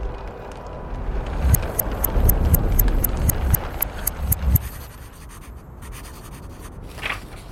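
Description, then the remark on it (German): Ernest Shackleton, alone in his tent, writes in his diary: a pen scratches across paper in a run of quick, uneven strokes, with a few sharper ticks, then quiets and stops. A low, steady rumble sits underneath throughout. No one speaks. “Ernest Shackleton sitzt allein in seinem Zelt und schreibt in sein Tagebuch.”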